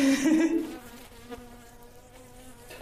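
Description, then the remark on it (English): A worker bee held in a hand buzzes, a loud burst at first that settles into a softer, steady droning hum for the rest of the moment, with no talking over it. “So if you hold one, you can feel it start to buzz.”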